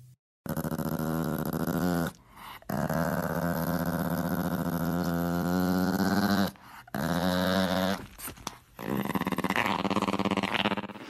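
A dog makes long, revving growl-like sounds that mimic a motorcycle engine, loud, in several sustained bursts separated by brief pauses, with no one talking.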